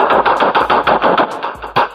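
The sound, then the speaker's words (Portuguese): Rapid bursts of machine gun fire, a fast rattling string of sharp shots repeating steadily, then a short pause before a final loud shot, loud with no voices. “Pega, pega que os caras da tiro.”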